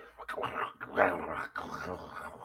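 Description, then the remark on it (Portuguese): Someone imitates a dog's growl with their voice: a rough, rumbling snarl lasting a couple of seconds, fairly loud, swelling briefly in the middle with no words spoken. “Sabe quando cachorro rosnando?”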